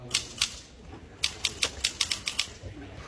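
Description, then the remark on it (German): Loud, sharp clacks of a very old mechanical typewriter brought to an event where laptops were banned: a couple of strikes, a pause, then a quicker uneven burst of keystrokes, with no voices. “Und dann hat er einfach ganz suffisant einfach eine Schreibmaschine, eine ganz alte mitgenommen. Und die ist ja ultra laut.”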